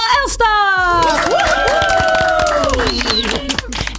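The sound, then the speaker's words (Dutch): A lively crowd in a busy studio cheers, whoops and claps, with excited voices rising and overlapping over a steady patter of applause. “Het is, eh, gezellig, het is gezellig druk in de studio hoor ik.”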